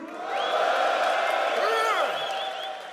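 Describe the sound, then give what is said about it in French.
A crowd of men in an audience cheers and shouts loudly after being asked to make noise, voices overlapping in a sustained roar with a few rising whoops and yells standing out before the noise tapers slightly. “les gars faites du bruit les beaux gosses ce soir faites du bruit.”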